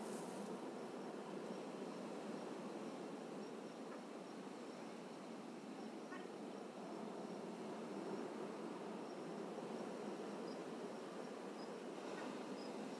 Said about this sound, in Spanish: Escuchen los bello y hermoso que suenan las olas. Y trate de imaginarse el paraíso que puedo observar en este momento.